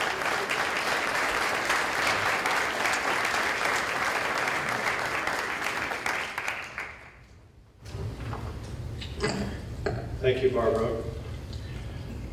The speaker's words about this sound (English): So please, uh, let's give a, a round of applause for our panelists who work very diligently.